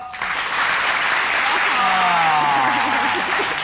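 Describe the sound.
Sustained applause from a studio audience fills the room, given when the host asks them to clap if they do not want a break. It is a dense wash of clapping that starts abruptly and holds steady, with some voices and cheering mixed in underneath.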